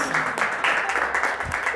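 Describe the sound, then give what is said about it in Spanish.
An audience applauds the participating performers steadily for about two seconds, a dense, crackling wash of many hands clapping at once, fairly loud and even throughout. “Un aplauso para nuestros artistas.”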